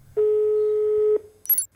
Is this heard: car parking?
no